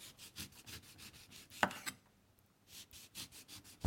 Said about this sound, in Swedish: Och sen då så brukar jag ta och skära alltså stora liksom tunna skivor av apelsin som blir väldigt vackra. Då tar man ekologiska apelsiner som man har kvar skalet för det är ju väldigt snyggt. Så skär jag apelsinen.